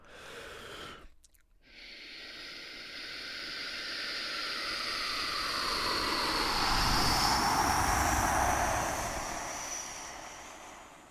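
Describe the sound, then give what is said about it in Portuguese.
A voice imitates an airplane taking off with a breathy, rushing whoosh that briefly cuts out, then swells steadily louder and brighter as if climbing, before fading slightly at the end as the imitator runs out of breath. “isto é um avião a levantar”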